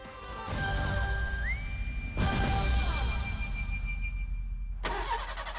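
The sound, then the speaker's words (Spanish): A car engine cranks in repeated bursts, roughly three attempts, grinding and whirring without ever catching, with a thin whine running beneath between tries; the car will not start and its battery needs changing. “el coche no arranca.”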